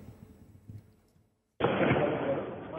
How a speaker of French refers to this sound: Sur cette vidéo, on entend les tirs de mortiers d'artifice et les cocktails Molotov tirés par des jeunes cagoulés. Pompiers et policiers sont ciblés alors qu'ils interviennent pour un véhicule incendié dans ce quartier sensible de Limoges